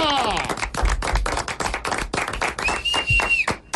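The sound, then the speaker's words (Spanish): A small group in a studio claps rapidly and steadily for a few seconds, fairly loud, applauding the Colombia national football team, with a brief whistle-like tone and faint voices mixed in near the end. “Un aplauso grande a la selección Colombia, a lo que ha sido hasta el momento.”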